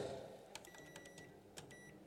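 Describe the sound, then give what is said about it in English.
A rapid series of short electronic keypad beeps as buttons are pressed on a microwave oven to set it for two minutes to cook popcorn, then a brief pause and a few more beeps as it starts. “You go to the microwave, you open that up.”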